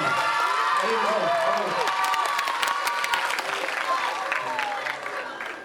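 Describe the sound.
A crowd applauds loudly and steadily for several seconds, with a few voices calling out over the clapping early on, before the applause eases slightly toward the end.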